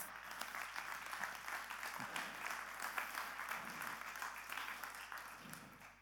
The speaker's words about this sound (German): Wir haben einen Gedanken, wir beten dafür, ja, ein Applaus.